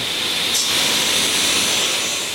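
A power saw, worked by a trained carpenter making a Frankfurt footstool at the Spacewood workshop in Frankfurt, cuts through wood with a loud, steady high-pitched whine over dense rushing noise, unbroken for the whole stretch, with no voices.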